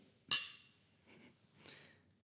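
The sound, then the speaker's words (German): A single bright clink of glasses touching in a toast, ringing briefly before fading, followed by two soft, breathy noises. No one speaks. “Wir haben noch keinen angestoßen.”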